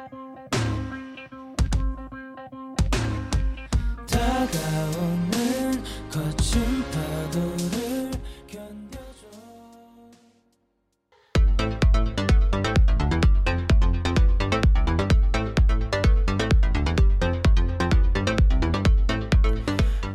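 A band plays a song with drums, bass and guitars. The opening builds, dips briefly to near silence around the midpoint, then comes back loud with a steady, driving beat. No one speaks over it.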